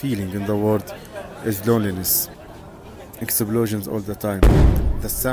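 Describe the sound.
A man talks steadily amid constant detonations while a single deep, booming blast of artillery fire bursts in near the end, heavy and rumbling beneath his voice.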